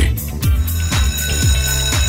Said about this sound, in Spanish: Suena el timbre, parte la primera clase